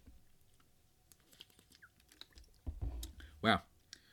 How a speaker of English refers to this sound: That was a very good slurp of water that I just took for all my YouTube listeners.